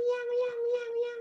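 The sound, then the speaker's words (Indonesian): A voice mimics a squeezed cat with one long, shrill, nasal whine held at a steady high pitch, wavering slightly in brightness for just over a second. “Iya, iya, iya, kucing kecepet itu.”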